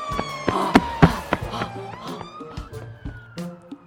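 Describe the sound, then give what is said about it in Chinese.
A fire engine siren wails as the fire engine rushes to a fire near a park, in a steady, high tone that climbs slightly toward the end, with several sharp knocks and clattering thumps over it. “没过多久，消防车火速赶来，阿文和妈妈也赶紧逃跑。”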